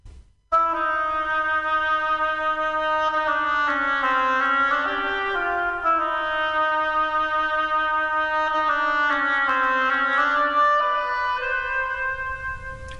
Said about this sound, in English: In the tale you are about to hear, each character is represented by a different instrument of the orchestra. The bird by the flute The Duck by the Oboe,